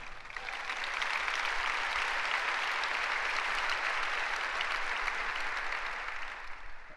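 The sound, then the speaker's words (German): An audience claps steadily, a dense wash of many hands that swells in over the first second, holds evenly for several seconds, then thins out toward the end. No one speaks. “It's, it's funny that they clapped because I wasn't clapping.”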